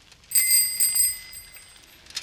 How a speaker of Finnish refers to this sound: Varis katseli ohjaustankoa ja pyöränkelloa. Hyppää ohjaustangolle, Varis. Varis istui ohjaustangolle ja rimputteli kelloa. Se rimputteli kelloa koko matkan risteykseen asti.